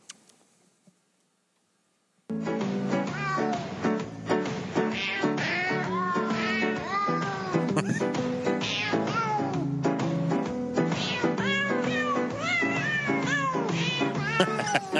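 Cat meows pitched and sequenced into a Christmas carol melody, stacked over a steady synthetic backing track, loud and continuous after a brief silent start; no talking.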